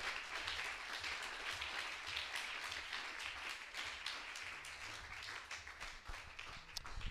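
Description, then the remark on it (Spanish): An audience applauds for Jesus, a dense, continuous wash of many hands clapping at an even loudness for several seconds without pause. “aplauso a Jesús, hermano, en esta hora.”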